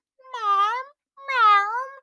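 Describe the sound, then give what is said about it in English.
Two drawn-out meows, each under a second and separated by a short pause, voiced clearly by a person imitating pet cats that meow as if saying "mom", with a slight bending rise and fall in pitch. “My cats literally meow mom. I just they're like”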